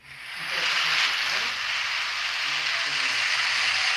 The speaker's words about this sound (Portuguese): Palmas ao vivo.